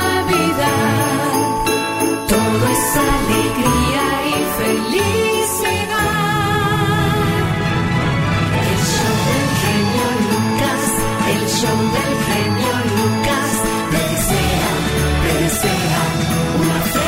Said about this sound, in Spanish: Suenan campanadas de la noche.